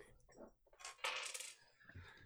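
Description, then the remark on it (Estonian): Small hard Dungeons & Dragons dice clatter onto a table, a bright rattling tumble of quick clicks that settles after about a second, with no talking. “mul on siin mingisugused noh, täringud ja värgid, et, et oleks midagi, mitte lihtsalt palki.”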